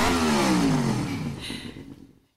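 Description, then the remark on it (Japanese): A motorcycle engine revs up loudly, its pitch climbing in a single throaty burst before dropping away and cutting off after about two seconds. “ではヤマハ発動機とのコラボコーナーに参りましょうエンジン”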